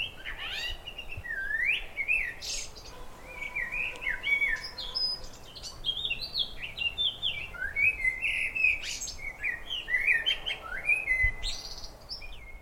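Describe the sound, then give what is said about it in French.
Two birds sing back and forth in quick, chirpy whistled phrases that overlap almost continuously, bright, with no voices and only a faint background hush. “Je cherche depuis plus d'une heure le chant d'un oiseau que j'ai longuement écouté hier. Ils étaient deux et semblaient se raconter des blagues.”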